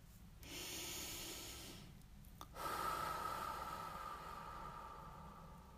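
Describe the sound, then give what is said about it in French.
Slow, deep breathing: a long airy inhale, a brief pause, then a longer, fuller exhale that trails off. No one speaks. “Vous respirez.”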